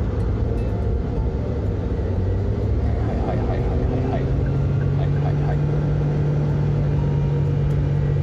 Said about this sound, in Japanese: あと1 0キロだから抜くかなんでこの追い越しが空いた瞬間スピード上げる車やめてほしいよね